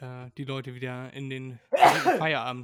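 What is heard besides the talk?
sneeze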